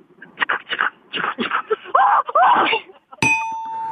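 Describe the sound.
A third-year middle school girl's voice imitates a steam locomotive, with rhythmic breathy chuffs and then two wavering whistle-like hoots. A sharp bell ding cuts in at the end and rings on.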